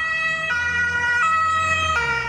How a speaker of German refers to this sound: Oh, da kommt das zweite Polizeiauto. Gleich hinterher